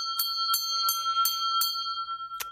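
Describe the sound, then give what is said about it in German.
A bright ringing bell jingle used as a "Klugscheißer-Alarm" (know-it-all alarm): a quick run of five evenly spaced high metallic strikes over a sustained shimmering tone, then one final strike after a short pause. No voices. “und jetzt erklär doch mal, also das wäre nochmal ein Klugscheißer-Alarm wert.”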